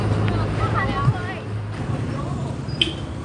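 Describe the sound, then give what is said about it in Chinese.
A motorcycle taxi, the traditional local tuk-tuk, drones steadily on the road, a low, continuous rumble with traffic noise and faint background voices mixed in. “你听到路上摩托车的声音了吗？这个摩托车就是他们这里非常传统的 taxi。”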